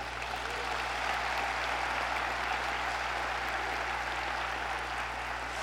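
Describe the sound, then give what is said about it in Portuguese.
An audience applauds a helper, clapping steadily throughout, a dense, even wash of many hands with no pauses, sustained at a moderate level from start to finish, with a low steady hum underneath. “Dá um aplauso para minha ajudante aí, gente.”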